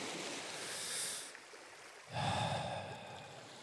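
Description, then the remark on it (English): A slow, deep breath in during meditation by the water, followed after a short pause by a longer, heavier breath out, fairly soft, with faint ambient noise behind and no talking. “Breathe in, breathe out.”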